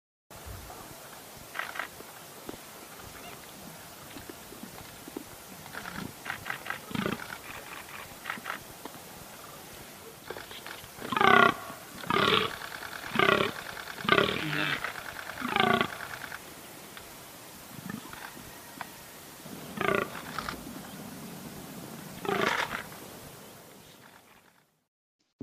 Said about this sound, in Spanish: Bien, pues es un, se trata de un cérvido mm, de un tamaño casi como, como el venado, un poco más